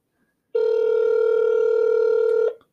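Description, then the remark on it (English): A single steady telephone ringback tone hums for about two seconds as if through the line, on an outgoing call placed to a guest, then cuts off into silence. No voices. “Phone's ringing.”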